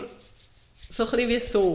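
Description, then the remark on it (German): Several quick, rhythmic scratching strokes, like something rubbed against wood, made as a vocal or hand imitation of a locked-in cat scratching, followed by a person speaking. “Es hat so... So kratzen?”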